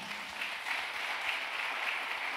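An audience breaks into a loud round of applause for 'papá': steady, dense applause, many hands clapping in a continuous bright wash that holds at an even level for a couple of seconds, with no voices standing out.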